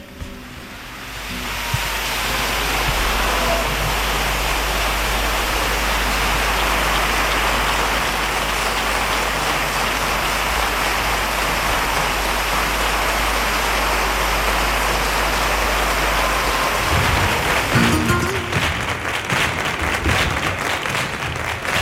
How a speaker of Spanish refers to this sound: Ahí se escuchaba las palmas por bulerías que al final, bueno, pues alcanzaban ese, ese compás.